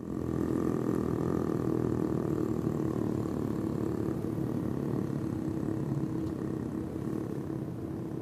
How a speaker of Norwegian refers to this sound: Den laveste frekvensen et menneske har produsert, er ifølge Guinness rekordbok litt under 0,8 hertz. Og den tilhører Tim Storms. Og sånn høres det ut når Tim Storms synger det dypeste han kan.